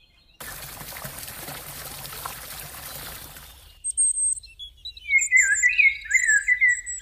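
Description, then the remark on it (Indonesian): A steady rush of splashing water fills the first few seconds, then stops, giving way to bright, overlapping bird chirps and tweets in quick, irregular bursts, clear, heard while jogging in the DPR RI urban forest in central Jakarta, among shady trees. “Nah, sekarang aku lagi jogging nih, ditemani kicauan burung dan pepohonan rindang.”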